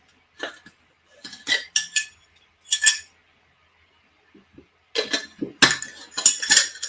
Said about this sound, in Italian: Bevo un bicchiere di acqua, poi ve lo dico.